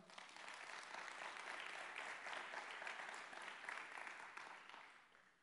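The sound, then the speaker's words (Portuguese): A church audience breaks into steady, dense applause to the Lord, many hands clapping together in a sustained wash of sound that holds for several seconds before tapering off at the end. “Aplauda ao Senhor.”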